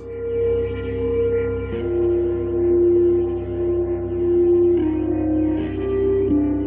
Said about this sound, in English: piece of music we're listening to in the background is called Dark Streets